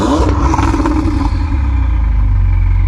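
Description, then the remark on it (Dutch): A Ferrari V8 engine revs hard, a loud, throaty roar with a rising then settling pitch that stays sustained throughout, with no voices over it. “Nou, laten we hem, jij zei net al, hier zit tenminste nog een echte V8 in met het echte Ferrari geluid. Laten we maar eens even horen.”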